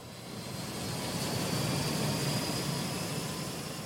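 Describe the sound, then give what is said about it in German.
A mountain rescue helicopter drones steadily, its broad rotor-and-engine roar swelling slightly as it approaches, then holding at a fairly loud level with no voices. “Egal ob im Wettersteingebirge, in der Watzmann-Ostwand oder im Spitzengebiet der Heli kommt.”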